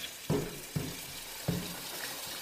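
Köfte meatballs sizzle steadily in a frying pan with a constant crackling hiss, broken by three soft knocks like a utensil nudging the pan. No voices.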